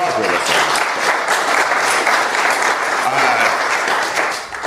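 A crowd claps steadily and loudly for several seconds, a dense wash of many hands that holds its level throughout before tapering slightly at the end.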